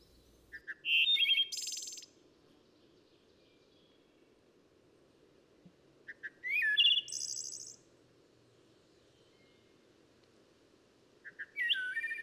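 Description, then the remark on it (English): A wood thrush sings three separate flute-like phrases, each a few clear notes ending in a high shimmering trill, with long pauses between them over a soft, steady low background hum. “But the crowning glory of all these robins, flycatchers, and warblers is the wood thrush.”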